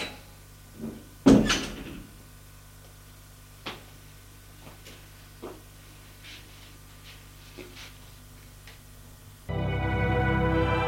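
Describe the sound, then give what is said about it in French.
A door opens with a loud clunk of the latch as a woman leaves, followed by scattered soft clicks and taps, then a steady low rumbling noise rises at the end. “Il lui crie Je te le dirai Elle ouvre la porte et s'en va.”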